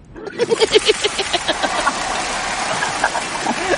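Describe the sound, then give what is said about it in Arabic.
A Lexus car engine cranks and turns over with rapid rhythmic pulses, then settles into a steady, fairly loud rumbling idle. “عادي عادي اي نسمع مع بعض مرة ثانية ايش اشتريتي؟ سيارة لكزس ليه اسمعوا مع بعض”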